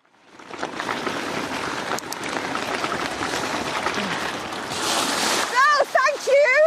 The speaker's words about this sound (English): So as we go up here now, we've got a couple of little water splashes. There are little bridges at the side, but after your last performance, I think you need to take the water every time. after you, go for it, have some fun.